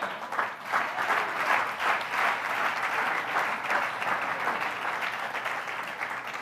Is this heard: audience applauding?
yes